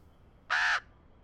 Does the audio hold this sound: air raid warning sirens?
no